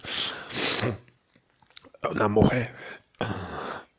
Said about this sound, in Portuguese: Porra, eu comi beijo eu tô tossindo pra caralho por causa do coco. Eu dar aquela engasgada.